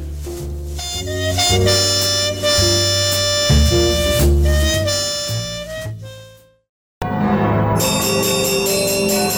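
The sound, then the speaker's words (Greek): Loud, bright bells ring in a dense, overlapping peal that continues for several seconds, cuts off for a brief silence, then resumes just as full. No one speaks. “Ακούτε καμπανές.”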